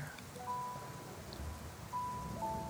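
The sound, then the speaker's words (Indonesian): Steady rain falls in a constant, dense hiss that fills the whole clip, with faint thin tones drifting above it. No one speaks. “Atau mungkin saja, hujan-hujan ini sedang berteriak memanggil Senja yang masih bersikeras untuk tetap pergi.”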